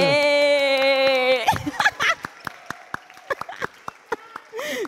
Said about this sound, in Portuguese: Uma salva de palmas, galera.